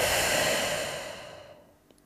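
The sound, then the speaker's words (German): A single deep breath in and out, with a steady airy rush that gradually fades out into near silence. No one speaks. “Atmen wir mal ein. Und wieder aus.”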